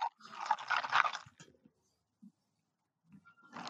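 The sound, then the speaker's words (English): Ice cubes crackle and rattle in a glass of a non-alcoholic elderflower and mandarin drink mixed with fizzing soda water, one loud burst of noise, then quiet with a few faint clinks before another crackling burst at the end. “You're mixing it with just soda, soda water.”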